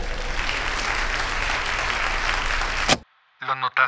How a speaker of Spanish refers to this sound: Quiero un enorme aplauso, por favor, para el campeón, que hizo un campeón, mi primo